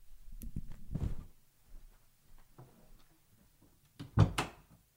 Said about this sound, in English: sorry, hold on. I've got to close the door.